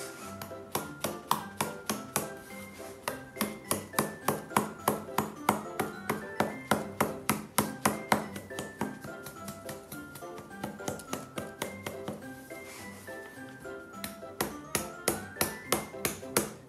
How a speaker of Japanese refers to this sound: そして、えー、ある程度手で置き切ったらですね、えー、ハンマーの背で起こしていきます